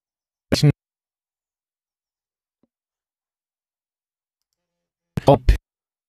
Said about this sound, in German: Sekunde, du bist gerade oh. abgehackt. Nee. Äh, ich höre euch. Du bist irgendwie gerade so ein bisschen unterbrochen.